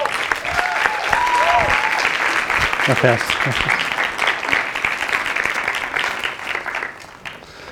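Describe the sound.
A crowd breaks into sustained applause, a dense wash of clapping that stays loud for several seconds, with a few whoops and cheering voices mixed in before it tapers off.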